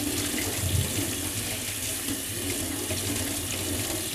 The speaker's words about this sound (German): Wir können jetzt gleich unser Sieb verwenden. Ab ins Sieb und einmal durchspülen. In diesem Sieb werden sie nämlich auch gedämpft. Einmal schön durchspülen.